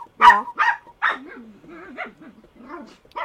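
Dogs bark in a few sharp, loud bursts, followed by softer whining and yipping sounds that waver between the barks.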